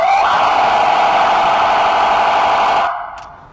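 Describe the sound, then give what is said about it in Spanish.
A loud, harsh emergency vehicle siren tone, the one used for traffic jams or when vehicles are not moving, blares steadily for about three seconds without changing pitch, then cuts off abruptly, leaving a brief fading tail. “Y este tono que a continuación te voy a mostrar es un tono para embotellamientos o cuando los vehículos no se mueven porque traes la música alta o porque traes tus vidrios arriba.”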